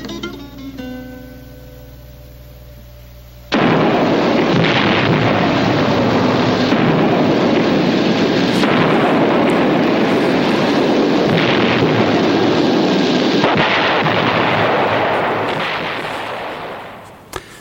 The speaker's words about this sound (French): Alors c'est sur cette sortie explosive euh, musicale, je sais pas pourquoi il y a eu un bruit d'explosion euh, ah, à la fin de la chanson.